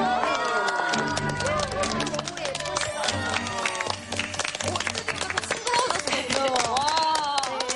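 Quick, sharp high-heel clicks of a show's arriving guest, actress and former model Gong Hyun-joo, tap out a steady walking rhythm beneath loud, bright music, with a crowd cheering and clapping throughout.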